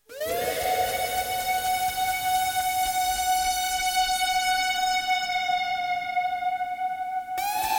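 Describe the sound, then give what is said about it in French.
A loud, screaming lead from a Virus synthesizer swoops up into one high, piercing note and holds it steadily for several seconds, bright and harsh, bending slightly upward right at the end. “Après, ouais, Augustin a rajouté euh, en santé son virus qui hurle un peu là.”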